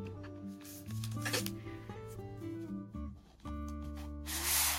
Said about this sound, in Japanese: じゃあちょっとこちらにずずずっとペンを持ってきますが、えー、こっちの4本手前4本がシャープペンですで、えー、あ今合計5本映像では映っていますで手前4本がシャープペンで、えーと、と一番反対側にあるのが1本がボールペンです